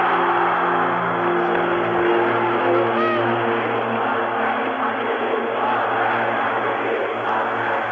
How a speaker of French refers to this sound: Il y a toute la foule qui clame comme ça Algérie française.